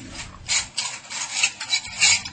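A tray of coffee cups is set down on a table, with a quick series of light ceramic clinks and rattles over a couple of seconds and no voices.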